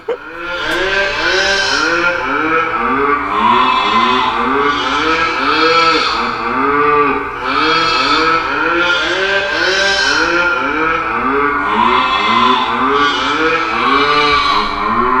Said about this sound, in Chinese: 然后这边给大家听一下这个呃牛的牛鸡羊的这个交响乐。